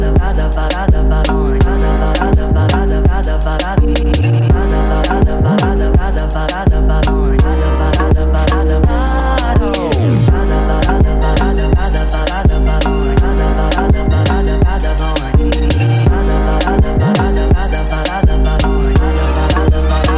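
A song plays loudly and continuously, with a steady thumping bass beat and dense layered instruments filling the whole stretch, with no talking over it.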